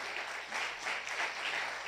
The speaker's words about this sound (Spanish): Dale un fuerte aplauso.